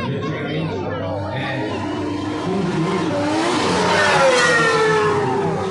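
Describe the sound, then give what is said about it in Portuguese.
A very fast V6 race car engine revs and builds as it sweeps past, its pitch climbing and bending over a steady roar, with crowd chatter and talking underneath. “Olha o V6. É muito rápido.”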